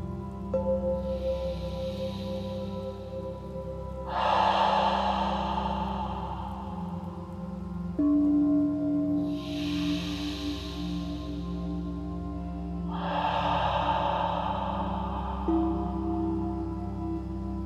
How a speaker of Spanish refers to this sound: Ahora contemos tres respiraciones. Intentemos no distraernos. En el momento que hagamos la tercera respiración, descansemos por un momento, soltando todo esfuerzo mental.